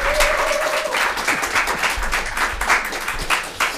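Audience applause for the finance man of a Freundeskreis (friends' association): many hands clapping in a dense, steady patter that holds at a fairly loud level throughout, with a brief whistle-like tone near the start.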